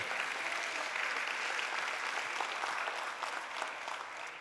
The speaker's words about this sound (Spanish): Si va a aplaudirle, haga lo mejor que eso.